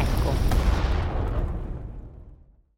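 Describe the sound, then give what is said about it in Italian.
A single loud, deep blast bursts out with crackling debris, then a heavy low rumble rolls on and fades away over a couple of seconds, like a mountainside being blown apart. An explosion blasting away part of a mountain to create the artificial lake for Trogena. “Per realizzare il lago artificiale parte di Trogena, più di metà di un'intera montagna dovrebbe essere fatta saltare in aria.”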